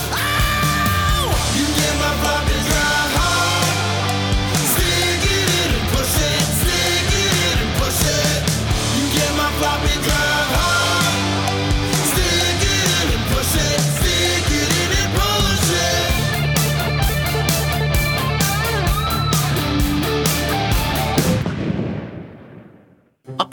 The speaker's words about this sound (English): I say, could you turn that infernal music down? Oh, what's that, Wins10? I can't hear you!